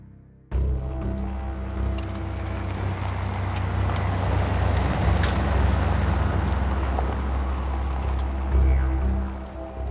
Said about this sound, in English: The dust kicked up around 42 year old Alex's car. He usually took back roads to his sister's house in a suburb of Sydney, Australia. It was the best way to avoid attention.